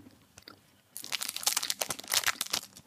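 Crisp crunching and chewing of dark chocolate, starting after a quiet second with a dense run of loud, irregular bites and crackly chews, no talking.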